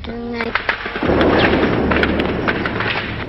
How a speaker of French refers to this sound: Le 8 juin 1972, à Bang, les Américains lâchent leur bombe au napalm. La famille de Kim euh, s'est réfugiée dans la pagode. À 3 heures de l'après-midi, une bombe touche la pagode.